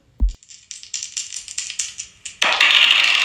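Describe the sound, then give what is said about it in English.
A dull knock, then dice rattling in a series of quick clicks before they tumble and clatter loudly across a hard surface, with no voices. “So what we gonna do, we gonna roll these dice, see what we come up with, and we'll be right back with it.”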